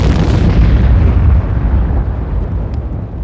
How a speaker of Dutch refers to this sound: En toen? Een enorme explosie.